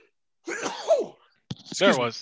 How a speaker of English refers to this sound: Sorry, I'm trying not to sneeze.